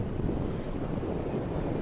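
Steady outdoor wind buffets the microphone with a low, constant rumble, while water washes and laps. There are no voices, just a continuous, fairly loud wash of noise.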